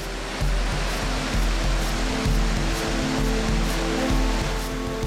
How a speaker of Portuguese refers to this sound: A queda é de mais de 270 metros de altura. O volume de água impressionante se desloca com força montanha abaixo. E o som ecoa pelo vale.